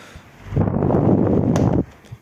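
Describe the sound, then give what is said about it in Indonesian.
An electric fan whirs in a steady, breathy rush of air for just over a second, starting and stopping abruptly, with no voices over it. “Itulah kipas sor kipas seru banget deh ya, ada kipas”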